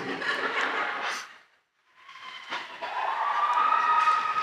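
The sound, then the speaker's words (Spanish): A siren wails up into a steady high tone after a burst of noisy rumble and a brief silence, fairly loud, with no talking. “Y cantando la sirena.”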